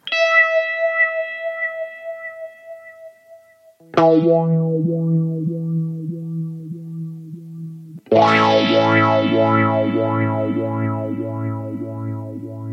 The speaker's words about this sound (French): l'autre modulation parmi les grands classiques, le phaser. Ici, on va entendre un imig Phase 90